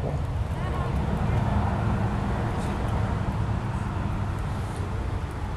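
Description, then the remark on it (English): Steady road traffic noise, a continuous low rumble of passing vehicles that holds evenly for the whole stretch without any distinct horns or individual cars standing out. “How come the traffic's not noisier right now?”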